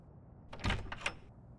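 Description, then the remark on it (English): A door opens with a short mechanical clunk followed by a sliding, scraping sweep and a second latch-like click, all within about a second, moderately loud. “Uh, open the door, please.”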